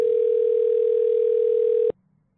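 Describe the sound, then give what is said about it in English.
A steady, unbroken telephone dial tone hums loudly and evenly for about two seconds while a person accesses their voicemail remotely, then cuts off abruptly into near silence. No one speaks. “Hang on, I need to access my re- my voicemail remotely again.”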